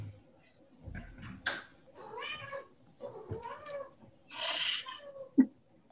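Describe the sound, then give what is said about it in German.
A cat meows repeatedly, several drawn-out, wavering cries with short pauses between them, plus a brief sharp tap near the end. “die Katze möchte auch ihre Medizin teilen”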